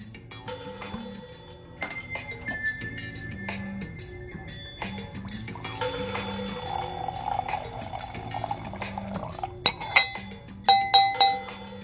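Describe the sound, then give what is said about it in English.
Red wine pours steadily into a glass for a few seconds, followed by a couple of bright clinks, with soft music playing in the background and no one talking. “So once again, ladies and gents, like she said, let's pour a glass.”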